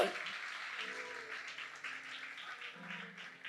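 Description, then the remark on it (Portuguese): An audience applauds the Lord steadily for a few seconds, a dense, even wash of many hands clapping, with faint low tones and voices murmuring underneath. “Aplauda o Senhor.”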